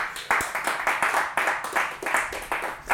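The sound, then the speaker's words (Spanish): An audience bursts into applause for the Lord Jesus, a dense wash of many hands clapping with a few sharper rhythmic claps standing out, sustained steadily and fairly loud with no talking over it. “Alguien dé un aplauso fuerte al Señor Jesús.”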